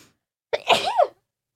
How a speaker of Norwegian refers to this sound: Må jeg nyse?